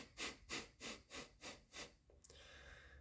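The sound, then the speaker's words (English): Six quick, forceful breaths pushed out through the nose in a steady rhythm during a rapid-exhale breathing exercise, each a sharp airy burst, followed by a moment of faint background hiss. “So, you take a normal breath in through your nose and then you rapidly exhale that through your nose as well, about seven to 10 times.”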